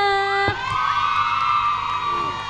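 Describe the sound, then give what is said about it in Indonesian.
A big crowd of students at SMA 5 high school, in the Aula MGMP hall, said to number a hundred thousand people, cheers and shouts together, a loud, sustained roar of high, overlapping voices that swells sharply after a brief opening and keeps going. “Uh, rame banget. Ada seratus ribu orang di sini.”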